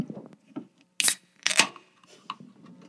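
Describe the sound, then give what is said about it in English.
A gluten-free white ale brewed from millet and buckwheat is cracked open: two sharp metallic snaps about half a second apart, each with a short fizzy hiss, surrounded by quiet handling rustle. “All right, well, let's crack it open.”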